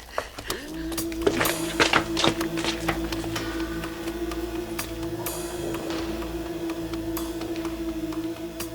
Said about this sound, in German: Schritte, ich höre Schritte.